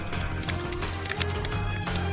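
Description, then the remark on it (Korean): Irregular clacking of keyboard keys, a quick scatter of sharp taps repeating throughout, heard over a steady low musical hum in the background. “그 타자 좀 그만 딱딱거리세요”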